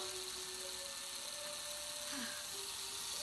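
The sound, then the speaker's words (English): A two-directional electric drill runs continuously, run backwards to turn down a speedometer, a steady whirring motor whine with a faint low hum, sustained for the whole stretch without pauses or speech. “Two directional drill. You run it backwards, the numbers go down.”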